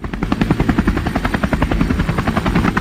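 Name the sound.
helicopter sound effect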